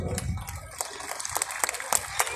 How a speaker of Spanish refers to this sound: Dice Unión de Trabajadores de Desechos Sólidos Industrializados del Estado de Guanajuato, AC Lázaro Cárdenas del Río. Río. Un fuerte aplauso.